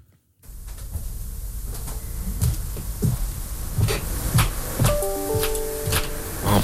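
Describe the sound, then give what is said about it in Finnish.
A four-hour recording of upstairs neighbour noise: muffled thuds and knocks repeat irregularly, about every second, like doors and footfalls through a ceiling, over a steady low rumble and hiss, with a brief faint tonal whine near the end. “Uh, upstairs Neighbor Noise, neljän tunnin tämmönen äänitallenne.”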